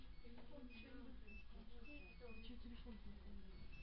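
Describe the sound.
A phone gives off a series of short, high electronic beeps at uneven intervals, fairly faint beneath people talking and steady background noise.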